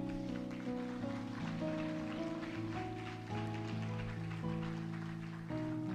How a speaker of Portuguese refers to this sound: Você crê? crê, aplauda Jesus por isso.